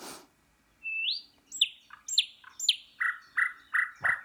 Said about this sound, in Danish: der kom den. Det er nattergalen. Der kom den nattergalen.